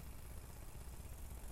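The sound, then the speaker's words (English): A bicycle cassette freehub ratcheting while the rider coasts, riding alone, a rapid, steady buzz of tiny clicks that runs evenly for the whole moment with no voices over it. “You can actually hear my cassette ratcheting right now.”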